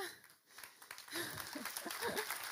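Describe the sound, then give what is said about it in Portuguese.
Scattered audience applause crackles, a loose patter of clapping hands that builds after a brief lull, with a few voices murmuring beneath it. “assim, se aplaudem, aplaudem todos, ok? Não deixem as pessoas que não aplaudirem embaraçadas.”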